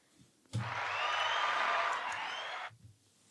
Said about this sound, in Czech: Dneska to je samý potlesk. Samý potlesk.